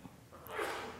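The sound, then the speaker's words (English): A single sneeze: a short intake of breath, then a sharp, hissy burst of noise that swells and fades within a second, with no talking. “We already know, bless you, the love, the law of compassion because it is written in our hearts.”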